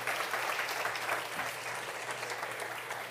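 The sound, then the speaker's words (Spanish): A church audience applauds the Lord steadily, a dense wash of many hands clapping at an even level for the whole stretch, with no voices standing out. “Levántate, dale un aplauso al Señor.”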